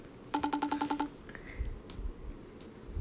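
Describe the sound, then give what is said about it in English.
A quick run of about eight electronic keypad beeps as a phone number is dialed, followed by a faint, brief tone and some quiet background clicks. “He also never picks up his phone.”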